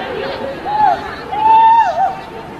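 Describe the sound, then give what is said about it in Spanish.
A female referee, hit by a hard-shot football during a Real Madrid match, gives two strained, drawn-out cries of pain, a short one and then a longer wail. They ring out above the steady murmur of a large crowd in a stadium. “Escuchen los gritos de dolor El la árbitra.”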